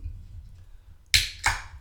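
A beer bottle is opened: two sharp hissing bursts, the second about a third of a second after the first, each trailing off quickly over a low, quiet background rumble.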